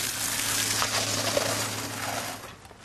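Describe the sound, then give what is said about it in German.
Steady rain in Kirchehrenbach, Upper Franconia, falls while painters finish an inn's outer wall, making a dense, even hiss with scattered patters and a faint low hum underneath, easing off slightly at the very end. No one speaks. “Mittlerweile regnet es, aber die Außenwand soll fertig werden.”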